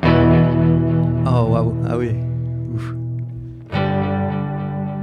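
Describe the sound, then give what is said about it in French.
A clean electric guitar chord, played on a Stratocaster's neck pickup through a delay pedal with slight modulation, rings out with a delayed, gently wavering shimmer, sustained and then struck again near the end, while a man briefly exclaims over it. “Il y a vraiment ce délai avec une légère modulation qui vraiment va donner un son un peu plus complexe avec un peu plus d'harmonique.”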